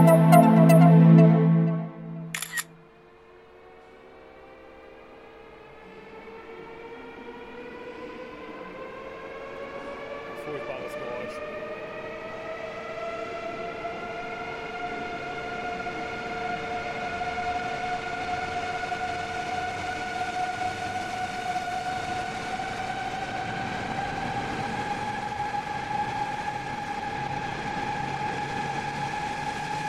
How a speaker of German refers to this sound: Was ihr gerade gehört habt, war der ausfahrende ICE Baureihe 407 nach Stuttgart. Und dementsprechend stehen wir jetzt auch am Frankfurter Flughafen Fernbahnhof.